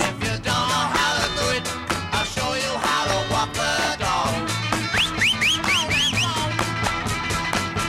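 Loud rock music with steady drums plays throughout, and partway through a quick series of about five short rising whistle swoops cuts through the mix, one after another.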